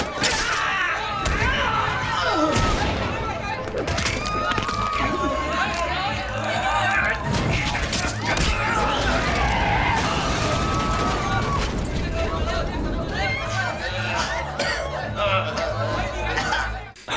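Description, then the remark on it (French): A chaotic fight scene, with repeated punches landing as dull thuds and sharp cracks of breaking bones amid shouting and grunting voices, loud and continuous throughout. “Donc, c'est la baston, donc t'entends quoi Des coups de poing, des vides pétées, des craquages d'os.”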